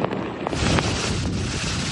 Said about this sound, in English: We have seen a lot of heavy winds and heavy rain over the last few hours here in Georgia, and officials are warning that more of this kind of weather is yet to come overnight.